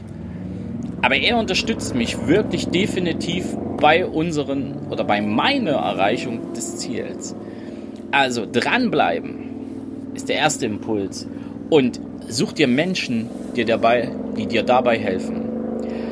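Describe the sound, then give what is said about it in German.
A motorcycle with a loud exhaust rumbles steadily in the background in a village, a low engine drone running beneath a man talking continuously in the foreground. “Du hörst jetzt hier im Hintergrund, der ein oder andere hat bei uns im Dorf ein Motorrad mit einem etwas lauten Auspuff.”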